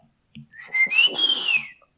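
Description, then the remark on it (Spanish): A single loud, sharp whistle from a father calling his child home at 8 o'clock, a long tone that rises then falls, lasting about a second with a breathy edge, heard on its own. “y yo me acuerdo que en ese tiempo me metían a las 8, y nomás salía mi papá y chiflaba.”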